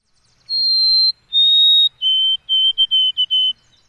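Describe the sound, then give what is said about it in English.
A white-throated sparrow sings alone: two long, pure whistled notes, then a quick run of shorter repeated notes on a slightly lower pitch, clear against a silent background. “The bird in question here is the white throated sparrow. Here's its chirp.”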